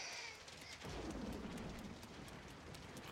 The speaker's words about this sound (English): It's got to be raining for effect.